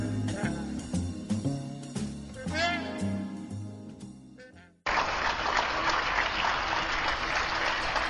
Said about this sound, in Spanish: Un sonido diferente ha llegado a nuestro patio. Unos minutos antes de las ocho se escuchan los aplausos de numerosos vecinos que agradecidos, orgullosos y a veces emocionados dedican al personal mayoritariamente sanitario que está trabajando